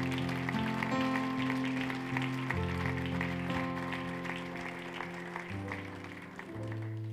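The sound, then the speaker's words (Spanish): An audience claps steadily and densely as a strong round of applause to the Lord, over sustained keyboard chords that shift pitch every couple of seconds, the applause and music holding at an even, moderately loud level throughout. “¿Puedes dar un fuerte aplauso al Señor, al Dios fiel, maravilloso, que tenemos?”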